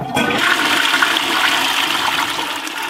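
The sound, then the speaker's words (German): A conventional toilet flushing, a loud continuous rush of water that holds steady for about three seconds with no voices. “Und wir kennen das ja aktuell noch als typischen Klo-Sound.”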